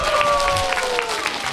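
A crowd applauds with steady, dense clapping for the whole moment, while a faint sustained tone glides slightly downward beneath the claps.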